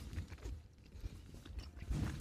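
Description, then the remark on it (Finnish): Wet chewing and munching with irregular crunchy bites and mouth noises, fairly quiet, heard alone without speech. “Pitäisikö hei mussutuksen lomassa käydä seuraavaa haastetta läpi?”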